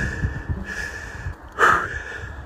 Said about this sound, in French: Euh, je, suis en train de me taper une côte. Hein. Si vous vous demandez pourquoi je suis essoufflé, c'est parce que j'enregistre en me tapant une côte.